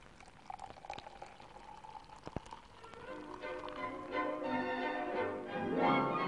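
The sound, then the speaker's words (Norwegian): Beer pours steadily into a glass, the liquid gurgling and fizzing, the pitch rising as the glass fills and the sound grows louder toward the end. A couple of faint clicks come early. “Øl hører til. Øl er godt.”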